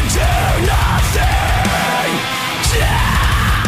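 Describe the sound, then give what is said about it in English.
Harsh, screamed vocals roar over loud, dense heavy metal, with pounding low drums and thick distorted guitars filling the mix throughout, the voice rising and falling in long drawn-out yells; the band's violinist is the one screaming instead of playing violin. “He's screaming instead of playing the violin.”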